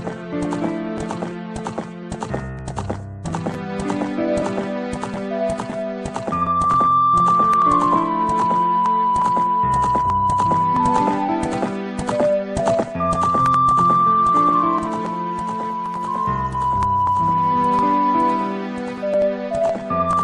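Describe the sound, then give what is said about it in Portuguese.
Steady clip-clop of Epona's galloping horse hooves runs beneath the opening music theme of a Zelda game, the rhythmic hoofbeats continuous and fairly prominent throughout, with a sustained lead melody rising and falling over them. “Mas é as cavalgadas da Epona. Hum, no fundo da música, né?”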